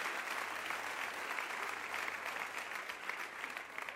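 An audience applauds steadily, a dense wash of many hands clapping at an even, sustained level for several seconds with no voices standing out.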